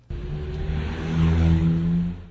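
A car engine hums steadily with low, droning harmonics, rising slightly in pitch and loudness midway as if accelerating, then easing off; fairly loud, with no voices.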